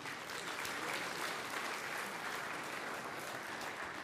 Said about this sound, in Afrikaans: Sy sit hier, gee hulle lekker aan 'n klap toe.